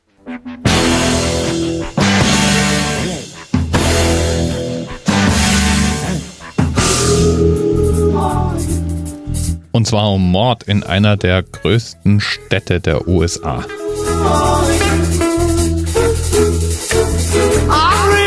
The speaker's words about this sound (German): was du da hörst, ist der Theme-Song von CSI